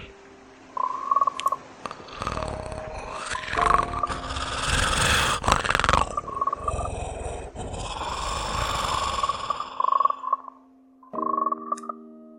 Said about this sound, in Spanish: Me habló en una lengua que, que parecía un diálogo entre dos serpientes y, y una rana. Sonidos que no creo que una garganta humana pudieran realizar.